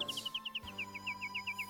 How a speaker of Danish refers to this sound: Men nattergalen sang blot sin smukke sang, som om den ville sige, at den allerede havde fået belønning nok.